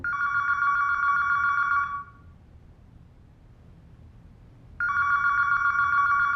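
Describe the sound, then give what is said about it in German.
A telephone rings in two long electronic bursts separated by a pause of near silence, the ring loud with a steady buzzing tone. No one speaks. “Buchhandlung Bredehöft, guten Tag. Sie rufen leider außerhalb der Öffnungszeiten an.”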